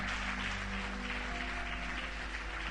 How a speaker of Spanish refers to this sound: Si es así, póngase de pie, por favor, y déle su aplauso al Señor con toda su alma. Vamos, aplauda al Señor. Apláudale a Él.